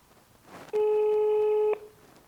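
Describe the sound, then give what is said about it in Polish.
A single telephone ringing tone sounds for about a second before a call about a job is answered, a steady, fairly loud electronic buzz heard through the line, with quiet background before and after it. “Druga seria telefonów. Nieco trudniejsze możecie stwierdzić, bo to telefony o pracę.”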